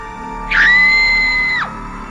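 A woman, frightened, lets out a single loud, high-pitched scream for help that holds steady for about a second before cutting off, over a faint, low background hum.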